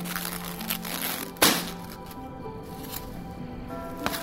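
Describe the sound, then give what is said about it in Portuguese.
A styrofoam takeaway container is handled and snapped shut, with creaking, squeaky rubbing and one sharp crack partway through, followed by quieter scratchy fiddling. “A SMR de fechando isopor da quentinha.”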